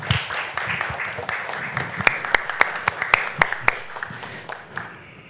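Audience applause after the swearing-in of the president of the Asociación Nacional Unión de Regidores del Perú: a dense patter of many hands clapping steadily for about five seconds, with a few sharp, louder claps standing out, fading slightly at the end.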